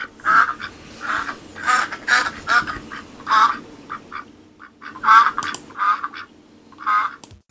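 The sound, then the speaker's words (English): A duck quacks repeatedly, a steady run of loud, nasal quacks in quick succession with brief pauses, clear with no talking. “Insert quacking up joke here.”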